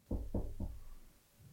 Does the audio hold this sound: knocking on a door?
yes